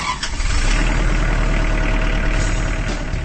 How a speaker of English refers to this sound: That's the sound of a Kubota Standard L compact tractor, now rolling off the line from Kubota's assembly line in Jefferson, Georgia. With a powerful Kubota diesel engine